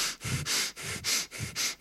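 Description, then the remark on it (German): Several quick, sharp breaths drawn in through the nose in a steady rhythm, demonstrating deep inhaling without fully breathing out, fairly loud, with brief pauses between them and no talking. “Viele Menschen, die viel Luft haben wollen, atmen tief ein und atmen dann nicht ganz so tief aus.”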